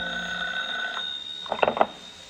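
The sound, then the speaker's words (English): An old telephone bell rings with a steady, metallic tone for about a second, followed by a few short jangling bursts. It is moderately loud and clear, with no voices. “And 15 minutes later, he was dozing off when the phone rang.”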